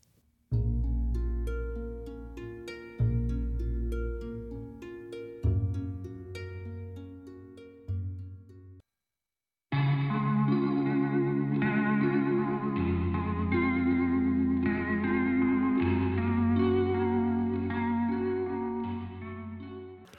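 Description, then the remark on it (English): Two short Korean pop song excerpts play back to back: first a bright, heavily processed track with strong bass hits, then after a brief gap a fuller, sustained pop song with rich synths and steady beat. “Okay, we're gonna go listen to a couple songs from the two artists that right. we talk about.”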